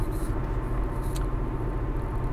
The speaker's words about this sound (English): I'm, I'm on the road now. I'm on a, I'm on a I'm on an interstate.